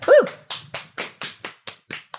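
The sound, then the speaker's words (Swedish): A short burst of applause: about eight sharp, evenly spaced claps in a steady rhythm, opening with a brief rising-and-falling whoop, clear with no talking. “Folkets jubel!”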